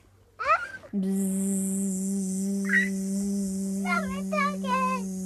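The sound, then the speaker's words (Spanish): A bee buzzes with its wings in a steady, loud drone that starts abruptly and holds without a break, while a child's voice briefly chirps and babbles over it. “El sonido que hacen las abejas lo hacen sus alas.”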